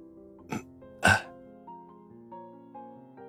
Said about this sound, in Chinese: 丈夫开始咳嗽，不是那种感冒引起的咳嗽，是清理嗓子的咳嗽。